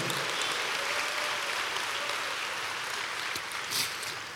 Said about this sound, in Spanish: Dele un aplauso a Cristo por eso, a su nombre, gloria.